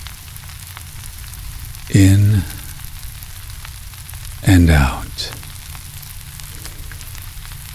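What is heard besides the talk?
bacon sizzling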